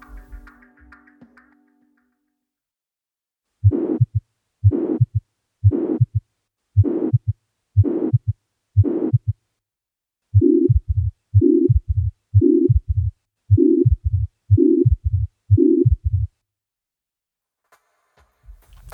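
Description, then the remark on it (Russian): A holosystolic heart murmur of mitral regurgitation: a steady whooshing band filling each beat between the heart sounds, repeated over two runs of about six regular beats, with no talking. “Лентовидный пансисторический шум более характерен для митральной регургитации вследствие ревматического поражения клапанов.”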